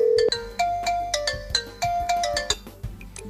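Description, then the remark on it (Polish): An incoming Viber video call ringtone plays alone: a bright, bell-like melody of quick plucked notes repeating in a steady, bouncy rhythm, with no voices over it. “No i ty dzwonisz. Tak. W tę stronę chcę to No to ja odbiorę.”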